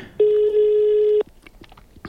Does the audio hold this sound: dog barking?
no